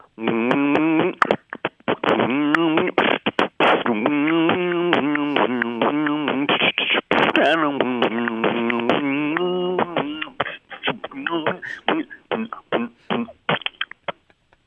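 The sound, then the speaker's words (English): A voice hums a steady, tonal melody while punching in percussive beatbox clicks and pops, then breaks into choppy bursts of beatbox rhythm near the end, fairly loud. “Well, can you still hum and beatbox, …? I can hum and beatbox.”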